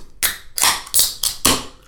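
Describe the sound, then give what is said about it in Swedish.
Two beer cans are cracked open, each giving a sharp metallic pop followed by a short fizzing hiss, the openings coming in quick succession with no talking. “Oh, två distinkta ölöppningsljud.”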